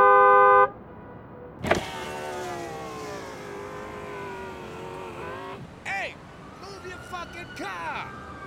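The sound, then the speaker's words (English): Car horns honk in stalled traffic: a short steady blast, a sharp bang, then a long drawn-out horn and a few brief squawking honks over a low engine rumble. “We're all stuck in traffic, pal.”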